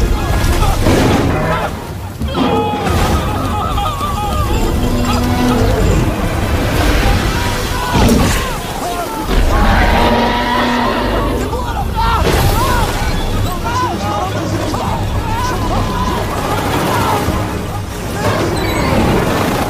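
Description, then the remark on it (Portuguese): An engine strains under heavy load, a loud, continuous droning roar with wavering tones and bursts of harsh crashing noise, while voices shout intermittently over it. “O motor não aguenta! Tem que cortar!”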